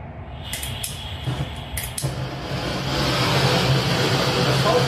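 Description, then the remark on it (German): A few sharp clicks and clatters, then the steady, loud flame of a soldering blowtorch, used for lighting a grill, roars up and holds as a broad, hissing rush, with no talking. “das Ding heißt Lötlampe. Bunsenbrenner. Im Grunde genommen, also ein Feuer”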